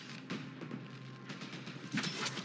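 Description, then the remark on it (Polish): Video game fireworks crackle and pop in a few scattered bursts, with a steady hiss of faint crackling between them, at moderate volume and with no voices. “Fajerwerki.”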